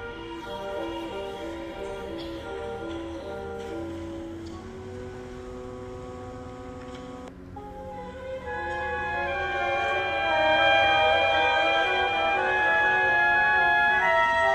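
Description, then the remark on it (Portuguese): Classical variations, a twelve-tone work, play back from YouTube through a small speaker with a thin, slightly noisy tone: sustained harmonic notes shift partway through, then the music swells louder and fuller toward the end. “Vamos ouvir um pouco das variações eh, via é, YouTube.”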